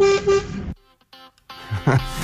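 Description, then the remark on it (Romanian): A loud car horn, sounded by a driver driving through a forest to scare the bears, gives one sustained honk lasting under a second, then cuts off; after a short lull a voice and some laughter follow. “Eu uh, momentan conduc și prin pădure și sperii urșii.”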